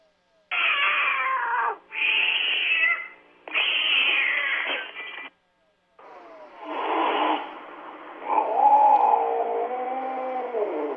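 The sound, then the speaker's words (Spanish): An aggressive cat yowls in long, drawn-out growling wails, three loud bursts followed by a sustained, wavering moan that rises and falls in pitch, with no talking over it. “Aquí les muestro otro también donde ya te muestran eh, pues, la agresividad como tal. También te están poniendo un límite.”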